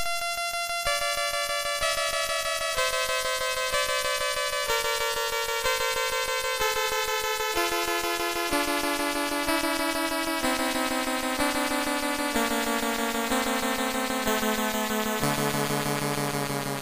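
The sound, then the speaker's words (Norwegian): Buzzy, synthetic game-over music that keeps stepping downward in pitch, creating the illusion of a tone falling endlessly. It plays steadily and fairly loud for the whole stretch, with no talking. “dette er en sånn effekt jeg har sett på YouTube, der du mm. tror tonen går ned eller opp hele tida”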